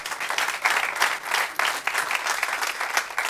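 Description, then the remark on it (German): An audience at a morning gathering bursts into sustained applause for a team that stepped in, a dense, steady wash of many hands clapping at once, fairly loud and continuous throughout with no voices standing out. “Geben wir ihnen nochmal einen Applaus.”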